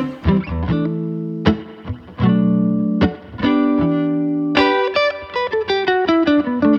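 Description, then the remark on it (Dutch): A guitar that is often played live plays alone: several ringing strummed chords separated by brief pauses, then a quicker run of picked notes climbing higher, sounding warm with bright sparkle on top and no talking. “maar het is echt, eh, met deze gitaar speel ik gewoon heel veel live.”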